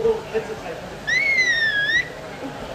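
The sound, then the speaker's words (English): A dog whistle, used to call a dog back, is blown once as a demonstration: a single shrill, sustained blast lasting about a second with a slightly wavering pitch, clear against a quiet background. “Can you can you give us a demonstration, Michelle? Can you whistle that thing?”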